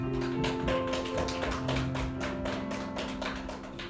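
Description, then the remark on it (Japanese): An audience at a church worship service claps steadily for several seconds, offering applause to the Lord, a dense, irregular patter of many hands at an even loudness, with sustained musical tones humming underneath. “主に英語の拍手を捧げましょう”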